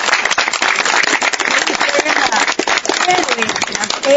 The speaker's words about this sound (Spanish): Yo quiero pedir un aplauso para todas ustedes,